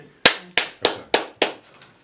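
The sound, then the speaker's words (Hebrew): Five sharp hand claps in a steady, fairly quick rhythm, crisp, followed by a couple of fainter trailing claps, with no talking. “אז אתה אומר, וואי, וואי, וואי, כפיים.”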